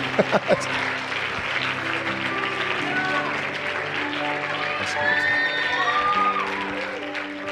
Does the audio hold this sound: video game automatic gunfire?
no